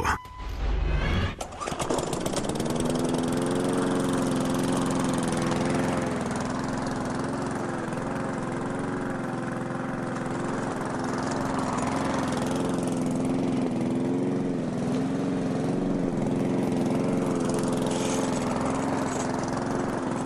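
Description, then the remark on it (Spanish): A lawn mower engine starts up with a brief sputter, then runs steadily with a loud, buzzing drone and faint wavering in pitch, continuing without pause. “Estamos escuchando sonidos de podadoras de pasto.”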